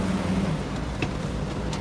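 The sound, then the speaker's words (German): Steady, fairly loud rumble of car traffic in a neighbourhood, a continuous wash of engine and road noise with a few faint clicks and no talking. “Überall Nachbarn und laute Autos.”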